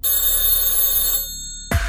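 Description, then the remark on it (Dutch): A telephone bell rings loudly and steadily for over a second, a bright metallic trill, then stops abruptly before a brief burst of another sound at the very end. “Maar let goed op, want als bij jou ooit de telefoon gaat, dan is het misschien wel de ene telefoon.”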